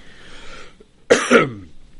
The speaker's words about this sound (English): If I could stop coughing